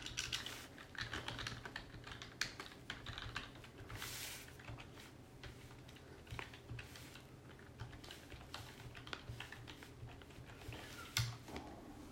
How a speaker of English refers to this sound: I didn't know that before I sat down here, started typing.